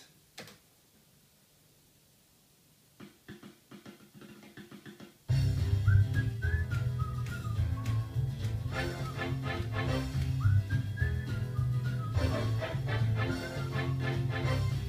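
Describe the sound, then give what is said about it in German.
A few quiet clicks, then playback of a newly set-up song prepared for mixing starts abruptly, loud, with heavy bass, steady rhythm and a bright melodic line running on top until the end. “Und damit ist das mein achter Song sozusagen der zum Mischen vorbereitet ist.”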